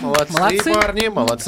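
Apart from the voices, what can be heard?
applause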